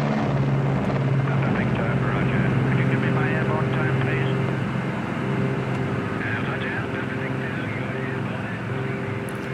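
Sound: airplane taking off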